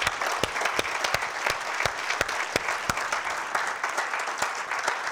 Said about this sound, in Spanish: Han habido muchos que han sido vueltos a la vida, pero el único que en su propio mérito volvió a la vida después de tres días y que ya no volvió a morir es el Señor Jesús. Démosle un aplauso a él, hermano.